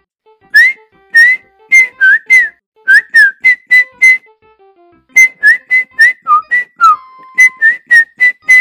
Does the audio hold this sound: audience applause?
no